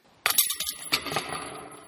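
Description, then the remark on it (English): A frisbee smacks into a disc golf basket, setting off a sudden burst of rattling metal chains that jangle and ring brightly, then fade over about a second and a half. No voices. “well, that is the sound of a frisbee uh, hitting a basket.”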